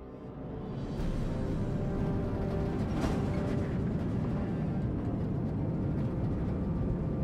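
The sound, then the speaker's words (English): A rocket lifts off from its launch pad with main power at 100% and launch thrusters pulsed: a deep, loud engine rumble swells over the first second into a steady, thundering roar that holds without letting up, heavy in the low end, with no voices. “Pulse launch thrusters. And Hypnos 1, we have liftoff.”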